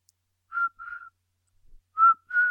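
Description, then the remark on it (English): Someone imitates cricket chirping with four short, whistly tonal chirps in two pairs separated by a pause. They are fairly loud, with no talking. “That's a horrible cricket noise.”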